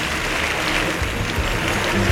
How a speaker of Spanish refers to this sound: El público la verdad que está muy con él y le otorga una fuerte ovación mientras que salen las mulas y Chamán sigue deambulando por el ruedo a pasito corto.